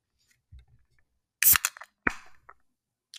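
A can of IPA beer is cracked open: a faint fumble, then a sharp metallic pop and a quick fizzing hiss of escaping gas, followed by a small click as the lid stays intact. No one speaks.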